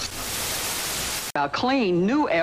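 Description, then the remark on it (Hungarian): Loud, steady hiss of television static for just over a second, cutting off abruptly as the channel changes to a broadcast where someone is speaking in a lively, sing-song voice. “Várja, kapcsolgatok kicsit tovább.”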